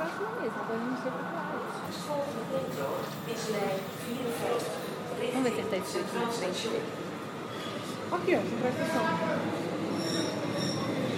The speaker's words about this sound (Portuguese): Muito bem, nosso trem está chegando. Nossa, ele vai parar bem antes da plataforma. Ih, rapaz, parou? As portas abriram.